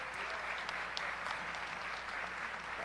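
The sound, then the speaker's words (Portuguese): During a church service, after a prayer, an audience applauds for Jesus steadily, a dense, even wash of many hands clapping at moderate loudness with no pauses, and no voices rise above it. “E um aplauso, Jesus, essa noite.”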